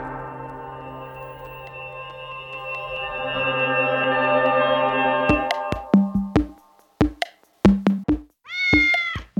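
A cat meows in a long, drawn-out tone, followed by a run of sharp, sudden hits, then one more short, bright meow at the end. No one speaks.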